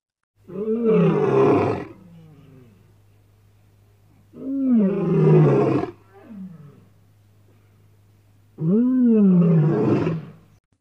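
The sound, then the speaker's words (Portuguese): Three loud, deep lion roars, each lasting about a second and a half, separated by pauses of a few seconds, with a low steady hum underneath and no one speaking. “O leão possui seu pelo unicolor, de coloração castanha, e os machos apresentam uma juba bem grandona. Eles são animais carnívoros pois se alimentam de outros animais. Vamos conhecer o seu som?”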